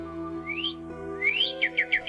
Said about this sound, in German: Es war ein wunderschöner Tag die Vögel zwitscherten am blauen Himmel